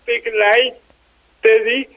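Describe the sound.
A voice talks in two short bursts with a pause between, sounding thin, boxy and muffled: speech recorded over a telephone line for a radio programme.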